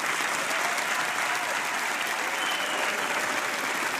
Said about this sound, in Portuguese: Uma salva de palmas para os meus quatro convidados.